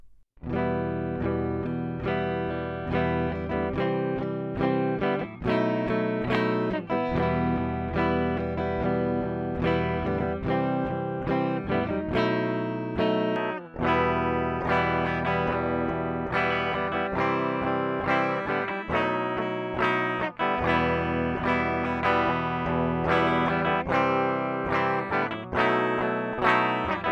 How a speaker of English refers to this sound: I will play the raw audio so you can hear how the DI input sounds. Then I will play a little bit of a full mix with some amp simulators in there as well.